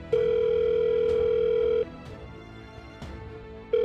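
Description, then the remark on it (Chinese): A telephone ringback tone as someone places a phone call: a steady, mid-pitched electronic hum sounds for nearly two seconds, falls silent for a moment, then starts again. Faint clicks are scattered through the pause. “拿出电话，佑天赶紧拨给了燕浩。”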